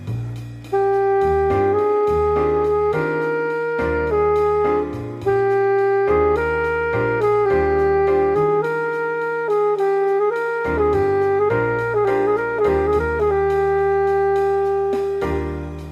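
A saxophone plays a practice exercise starting on the note E, a steady stream of note pairs with the first note of each pair dotted in a long-short rhythm, clear, over a low accompaniment that runs throughout.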